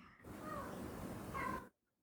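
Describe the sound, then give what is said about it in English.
A cat lets out a single drawn-out, growly meow lasting over a second, fairly loud, with a rough, noisy edge and a brief rising whine near the end, as it tries to fight off a bug. “as my cat tries to fight off a bug.”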